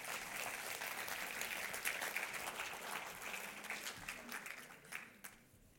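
A crowd applauds steadily, dense overlapping claps at moderate volume that thin out and fade toward the end.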